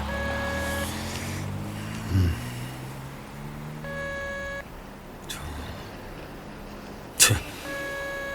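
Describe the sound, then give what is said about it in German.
A telephone ringback tone plays over a speakerphone while a fitness trainer's mobile number is called, three evenly spaced buzzing bursts about four seconds apart, heard over a low rumble with a couple of brief thumps and clicks and no one talking. “Ja, lass es noch ein bisschen länger klingeln”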